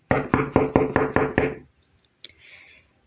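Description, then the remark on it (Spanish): Someone raps on a door with a quick, even run of about seven loud, solid knocks, then silence broken by one faint click and a soft hiss. “El ogro temeroso tocó la puerta.”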